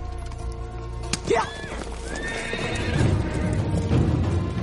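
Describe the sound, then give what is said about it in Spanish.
A horse whinnies with a rising, wavering call, followed by another neigh, then a rapid patter of hooves clip-clopping that grows busier toward the end, as a rider takes the reins of the other horses and flees in arid mountains. “Valar observa cómo se aleja, coge las riendas de los otros caballos y huye.”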